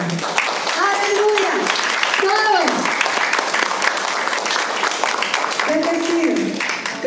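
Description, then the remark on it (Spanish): A large crowd at a religious gathering applauds steadily for several seconds after a prayer, a dense, loud wash of clapping, with a few voices calling out and cheering over it. “Todos, déjenme un aplauso.”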